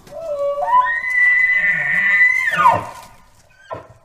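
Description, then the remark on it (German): A single long, wailing moose rutting call, made during mating season and also called a horn or bark, rises, holds a strained, steady note for about two seconds, then breaks off abruptly. A brief faint call follows, with no other sounds. “Der Brunftruf, der wird auch Horn oder Bellen genannt.”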